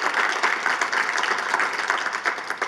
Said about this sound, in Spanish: vamos a darle bien es fuerte ese aplauso a Jesús